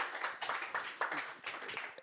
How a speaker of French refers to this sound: Alors, merci d'avoir été avec nous ce soir. On peut applaudir euh, merci beaucoup.